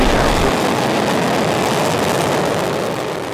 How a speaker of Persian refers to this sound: این صدای قررش موشک سایوز TMA 9 است.